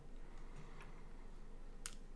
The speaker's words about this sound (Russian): Очень, наоборот, приятный кайфовый звук от механической клавиатуры.